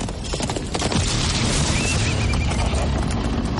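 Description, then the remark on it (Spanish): A horse ridden by Indy, galloping ahead of a tank, whinnies with a high, wavering cry while hooves pound steadily in a fast galloping rhythm, the whole scene loud and dense with rumbling low-end noise. “Indy cabalga delante de él.”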